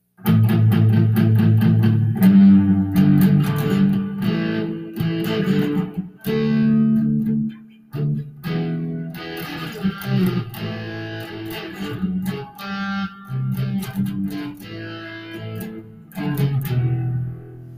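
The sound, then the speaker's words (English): A loud, distorted heavy metal passage from the middle part of a rock song, with thick, churning guitar chords and pounding hits, playing continuously with brief breaks and no voices. “Once it gets into the middle part, it gets a lot more heavy metal and actually sounds like this.”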